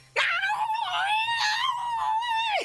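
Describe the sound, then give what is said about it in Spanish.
A person imitates a cat's mating yowl heard at night under a full moon, one long, loud, wavering wail lasting over two seconds, rising sharply at the start and dropping away at the end, with no other sounds. “Eso era un gato, era un gato apareándose.”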